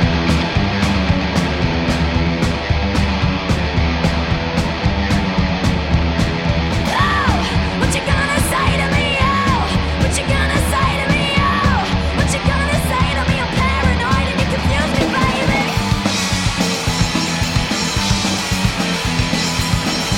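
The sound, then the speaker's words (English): A full band plays a loud, driving song with steady pounding drums and dense guitars, a voice singing over the top with wavering, sustained notes through the middle, continuous for the whole stretch. “There is a clip out there of them playing at Glastonbury from last year. This one's called ….”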